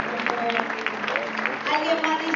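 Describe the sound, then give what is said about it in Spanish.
A church audience breaks into steady, dense clapping for a woman who comes forward to give her life to Jesus. The clapping runs the whole stretch at an even loudness, with a sustained tonal hum of voices or music faintly beneath it. “Hay alguien aquí que dice, hoy, ven, pasa aquí, corazón, un aplauso a esta bella dama.”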